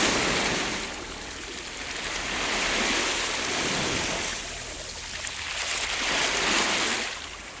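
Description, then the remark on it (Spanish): A boat approaching over water, with a steady rushing wash of waves that swells and ebbs in slow surges, continuous, with no voices. “Un barco se acerca.”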